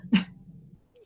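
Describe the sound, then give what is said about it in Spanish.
A single sharp sneeze bursts out, a quick loud explosive burst followed by a low breathy trail and a faint rustle. “Salud.”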